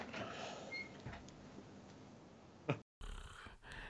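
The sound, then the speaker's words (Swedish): A person makes a long, rough snoring noise, rasping and breathy, ending with a sharp snort before a brief silence and a softer continuation. “Ja, nej men eh, nej, jag ska inte ha snarkande slutord.”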